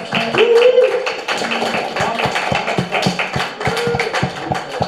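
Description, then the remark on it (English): A group applauds an artist showcasing her artwork, clapping steadily for about five seconds, a dense patter of sharp hand claps with a few voices murmuring or calling out underneath. “Yes, we need to give her an applause for her art.”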